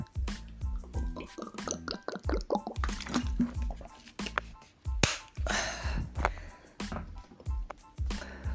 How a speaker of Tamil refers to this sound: two seconds ஒரு தண்ணி குடிச்சுக்கிறேன்